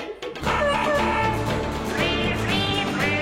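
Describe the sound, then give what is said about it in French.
A guitar melody plays steadily and loudly while a dog's barks, a duck's quacks and a cat's calls are woven into the tune as musical notes. There is no talking. “il finit par enregistrer le bon, la brute et le truand avec une guitare, un chien et un canard”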